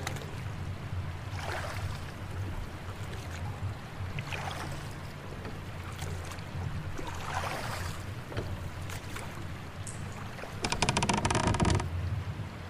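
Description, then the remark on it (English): A rowboat is rowed through calm water in thick fog toward a cave, oars splashing in slow, irregular strokes over a steady low rush of water, and a louder crackling spray near the end. “Row over to the ledge over here.”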